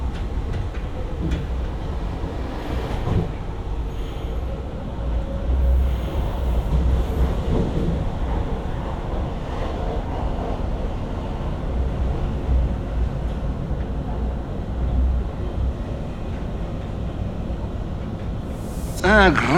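A train rumbles steadily along the rails for the whole stretch, a deep continuous low roar with faint rhythmic clatter, fairly loud, with a brief brighter screech near the end.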